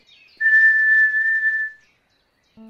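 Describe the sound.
A person whistles one steady, pure tone, held evenly for about a second and a half, clear, followed by silence and the brief start of a voice.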